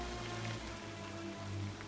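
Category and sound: nature, rain falling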